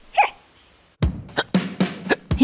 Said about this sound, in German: Für den Schluckauf gibt es viele Namen. Doch woher kommt dieses nervige Phänomen? Die Ursache des Schluckaufs ist ein Krampf des Zwerchfells. Das ist ein Muskel, der den Ober vom Unterbauch trennt.